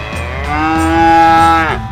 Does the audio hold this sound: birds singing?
no